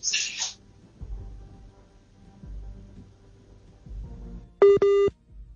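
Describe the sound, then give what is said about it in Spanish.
A WhatsApp call beeping tone on a call made over mobile data: two loud, short electronic beeps in quick succession near the end, following a stretch of low background rumble and a brief hiss at the start. “Esta es de esas llamadas, ese pitico es de, de WhatsApp. llamada por WhatsApp, sí, claro por datos y seguramente hay dificultades.”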